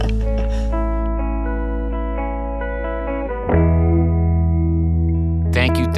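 Steady, heavily processed electronic music with sustained buzzy synth chords that shift to a new chord partway through, ending with a short noisy burst; no voices.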